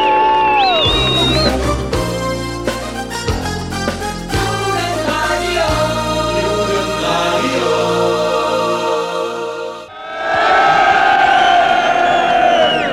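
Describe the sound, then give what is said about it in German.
A large protest crowd of several hundred people in front of the Kulturhaus in Neubrandenburg cheers and shouts loudly, the dense roar of voices surging up near the end after an earlier stretch of music. “Tja, und hier ist eine richtig trotzige Stimmung. Es sind sicherlich auch einige hundert.”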